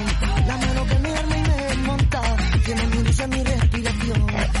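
A lively rumba song plays loudly and continuously, with a driving bass rhythm, percussive accents and melodic lines layered on top, and no one talking over it.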